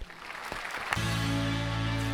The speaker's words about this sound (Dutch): En dan nu eh, gaan we door met eh, applaus.